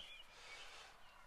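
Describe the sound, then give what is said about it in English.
A few faint, high bird chirps in the early morning, around 4:25, over a soft, steady outdoor hiss, with no one speaking. “Might be able to hear the birds in the background.”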